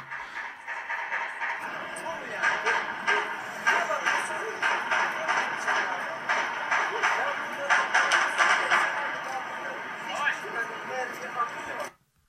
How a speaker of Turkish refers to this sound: akşam üzeri 8.30 civarı adliyeden silah sesleri duyulmaya başlandı. Bu silah sesleri aslında çok da kısa sürdü e, diyemeyiz. Biz de oradan e, canlı wine ve video gönderen e, arkadaşlardan bu silah seslerini e, kısa bir süreliğine kaydetmiş olduk.